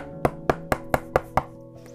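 Six quick, evenly spaced knocks on a door, sharp and fairly loud with a hollow wooden ring, followed by a moment of quiet. No one speaks.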